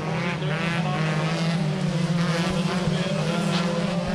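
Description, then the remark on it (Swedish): Several folkrace cars race around a track, engines droning loudly and continuously with rising and falling revs, a dense, steady racket of competing motors. “Nej, ja, vid ljudet av folkrace, ni som aldrig har varit på folkrace, så låter det så här.”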